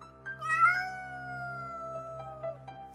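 Cats meowing at a fairly large, empty house, a long drawn-out wail stretching across a few seconds with overlapping cries and a low steady hum underneath. No one speaks.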